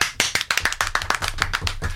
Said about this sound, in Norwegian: Klapper han inn.